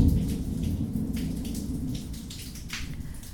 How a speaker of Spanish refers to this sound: Como por ejemplo, el trueno utiliza la estructura de la casa para seguir resonando y aumentar su propia vibración.